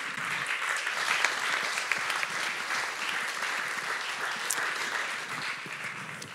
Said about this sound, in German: Lasst uns mit einem herzlichen Applaus hier, ja, Applaus, ja, fühlt sich gut an, ja,